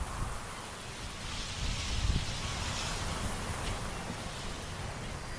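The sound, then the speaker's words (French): Wind and rain roar steadily outdoors at Cap Fréhel, a rocky headland in Brittany, France, above the English Channel, with waves breaking against the cliffs in a continuous wash of noise, swelling briefly before settling into an even, moderately loud rush with no voices. “Il y a du vent, de la pluie, du bruit quand les vagues se fracassent sur les falaises du Cap Fréhel, une pointe rocheuse qui surplombe la Manche.”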